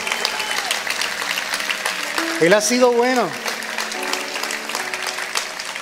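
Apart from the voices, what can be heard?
audience applauding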